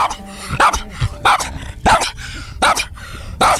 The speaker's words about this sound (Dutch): Een flink geblaf door honden, maar ook oud-deelnemers van de Dog Survival Zeewolde raken online niet uitgepraat over het bericht dat het evenement ophoudt te bestaan.